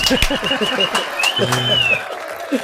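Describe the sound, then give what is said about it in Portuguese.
A brief burst of applause, scattered hand claps mixed with excited voices and a tone that rises and holds, all lasting under three seconds at a steady, lively level. “salva de palmas, salva de palmas.”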